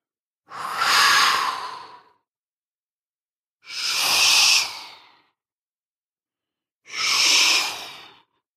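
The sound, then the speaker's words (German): Sea waves surge onto the shore of a beach three times in a steady rhythm, each a breathy, hissing whoosh that swells and fades over a second or two, with brief silences between them and no talking. “So brausen die Wellen ans Ufer.”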